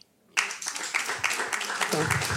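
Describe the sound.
Sudden burst of audience applause, a dense crowd clapping loudly and steadily as a vote by applause on who has not listened to the first ones, after a brief quiet moment, with a voice faintly mixed in toward the end.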